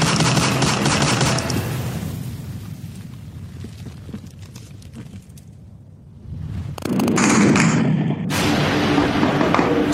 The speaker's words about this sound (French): Ce ne sont pas des bruits d'orage, ni ceux des missiles qui s'abattent sur notre territoire. Il s'agit d'un crépitement d'armes automatiques qui animent l'aire métropolitaine de Port-au-Prince. Nous sommes dans la capitale haïtienne, Port-au-Prince